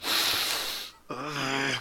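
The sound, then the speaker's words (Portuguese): A voice imitates the heavy, labored panting of an out-of-breath overweight person: a long, raspy, airy breath followed by a short voiced, groaning exhale, fairly loud. “ofegante de, de gordo”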